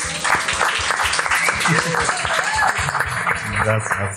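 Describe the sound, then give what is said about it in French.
Loud, sustained applause from an audience for a guest painter: dense, crackling clapping for about four seconds, with voices calling out and talking over it. “Je vous demande s'il vous plaît une vague d'applaudissements”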